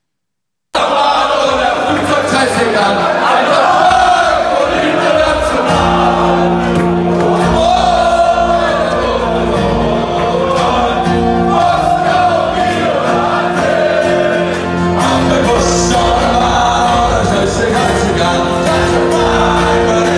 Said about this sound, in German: da steht so ein Typ ähm, mit seiner Klampfe und singt in bester Irish Pub-Manier